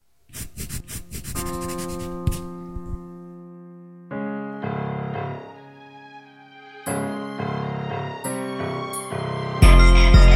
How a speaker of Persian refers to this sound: این صدای قلم استیاوش بود که برای نابودی پاک کن با دفتر داشت برخورد میکرد.